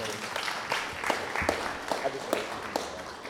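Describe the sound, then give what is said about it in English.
A small audience applauds a photographer as he is introduced, a steady patter of many hands clapping at moderate volume for a few seconds, with faint voices murmuring underneath. “So let's give him a hand.”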